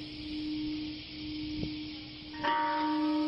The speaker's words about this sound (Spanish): Cada mañana, a la misma hora en que Little Boy explotó, una campana resuena en las calles de Hiroshima.